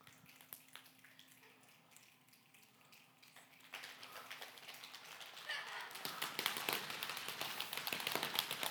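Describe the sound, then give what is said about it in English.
A crowd makes a rainstorm with their bodies: scattered finger snaps and pats swell into dense, loud patting and floor stomping, building from light drizzle to a roaring downpour. “Doesn't it sound like a storm in here?”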